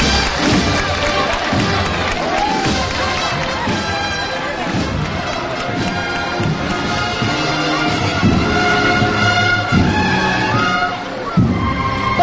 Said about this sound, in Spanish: Pues en este momento se acaba de, de levantar el paso y empiezan a llevar pétalos del cielo sobre el palio de María Santísima en la Amargura. Levantando estos gritos desde toda la gente que esperaba el este momento del lunes santo de Jaén.